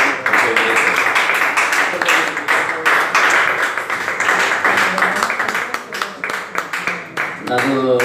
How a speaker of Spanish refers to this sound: Vamos a aplaudirle, aunque sean los que estamos aquí.